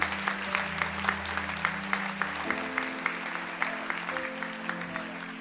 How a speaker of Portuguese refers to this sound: Quem recebe esta palavra? Quem recebe? Aplauda, aplauda, aplauda o nome de Jesus.